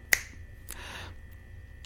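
finger snap

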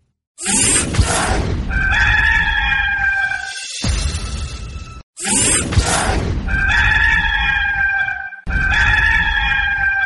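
rooster crowing

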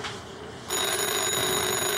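telephone ringing

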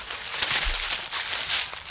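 gift being unwrapped

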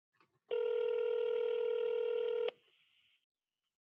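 telephone dialing tones

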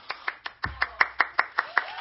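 applause

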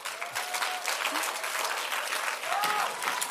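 audience clapping

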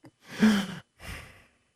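sharp intake of breath

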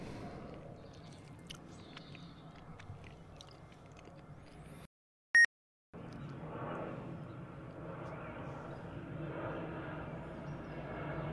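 airplane flying overhead

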